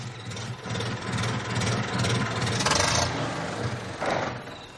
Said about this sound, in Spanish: Al día siguiente un criado arranca el coche.